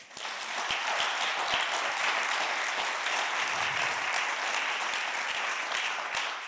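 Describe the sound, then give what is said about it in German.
Sustained applause from a church audience clapping for Jesus, a dense wash of many hands clapping steadily for several seconds at an even, loud level, with no voices standing out. “Beklatscht Jesus mal mit einem ganz fetten Applaus.”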